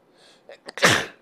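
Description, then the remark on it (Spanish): A single loud sneeze, preceded by a couple of quick sharp inhales building up to the explosive burst, with no talking. “Terminé estornudando”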